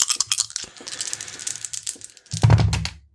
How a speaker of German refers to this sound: Ich habe gewürfelt.